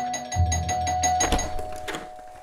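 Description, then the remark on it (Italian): A doorbell, rung by an 80-year-old neighbour, rings with sustained, steady electric tones, accompanied by a low hum and a few dull knocks partway through, with no one speaking. “Ma chi è che rompe da dieci minuti? Allora, vabbè, oh, sai cosa ti dico? Adesso vado ad aprire così, tutto bagnato.”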